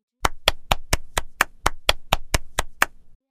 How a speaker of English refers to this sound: She claps.